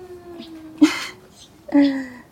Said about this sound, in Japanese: すいません、ちょっと あの、周りの環境をね、あの、入るかも。今ちょっと子供が泣いてて、その BGM をお楽しみください